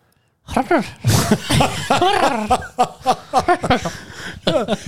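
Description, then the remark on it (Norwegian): A person vocally imitates a lovesick crocodile, a run of warbling, throaty coos that sound much like a pigeon, repeated continuously for several seconds, fairly loud. “Det der er ei due.”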